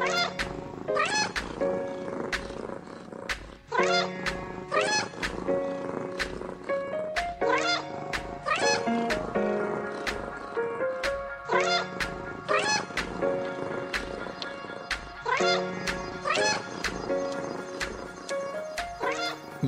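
Repeated cat meows ring out over a steady, upbeat musical jingle with sharp rhythmic percussion, the meows recurring every few seconds and sitting clearly in the mix.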